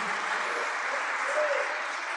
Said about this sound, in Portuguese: Você pode aplaudir e adorar a Ele. Louvado seja o nome de Jesus.